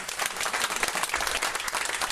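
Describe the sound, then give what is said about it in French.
An audience applauds comic artist Florence Sestac, winner of the grand prize for her body of comics work, many hands clapping in a dense, crackling wash that holds at an even loudness for the whole couple of seconds, with no voices rising above it. “Je vous propose de l'applaudir avant que je ne parle.”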